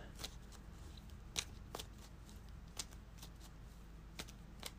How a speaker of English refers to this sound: Shuffle the discard pile into the encounter deck.